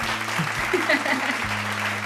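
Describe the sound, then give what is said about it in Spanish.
Steady applause from a group for a friend, clapping on for about two seconds, a dense, even patter of many hands, with a low constant hum beneath and faint voices mixed in. “Aplausos para el compadre”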